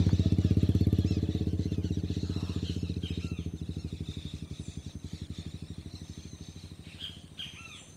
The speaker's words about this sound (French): Il y a quelques motos, mais c'est, presque 6 heures du matin. Et je vais aller descendre au bord de la plage. évidemment, il y a une moto qui vient se mettre juste à côté de moi, sur la plage.